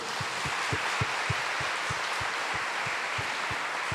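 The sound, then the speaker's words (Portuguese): A crowd at Canção Nova applauds steadily in praise of God for several seconds, a dense wash of clapping with a regular low thump pulsing underneath at a brisk, even beat. No one speaks over it. “Ao Senhor Davi, o nosso Deus, uma salva de palmas a Ele.”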